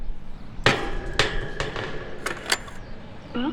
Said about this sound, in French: Porte déverrouillée.